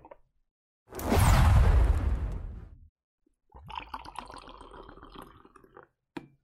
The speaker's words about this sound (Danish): Og nu hælder vi lige lidt mere kaffe op